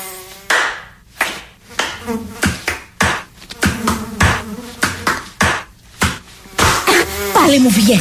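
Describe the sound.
A whiny mosquito buzz drifts up and down while a series of sharp hand slaps land loudly in irregular succession, with voice-like sounds mixed in.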